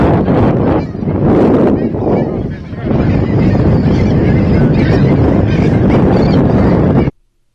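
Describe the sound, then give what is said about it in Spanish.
Loud, continuous honking and squawking of birds carried aboard a boat, like geese, mixed with heavy wind rumble and boat noise, lasting about seven seconds before cutting off abruptly. “Se ve que llevan hasta pájaros, ¿no?”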